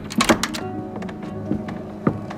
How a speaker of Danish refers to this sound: det er aften, da hun åbner døren ind til sit svagt oplyste hotelværelse og viser en ældre herre indenfor.